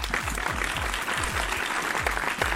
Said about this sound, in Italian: è colpa mia sono in ritardo, adesso finti applausi.